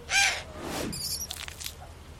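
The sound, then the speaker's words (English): An eagle owl catching a mouse: a loud, harsh screech, then a falling swoop and a few faint, high squeaks fading out. “He's lunch for that eagle owl.”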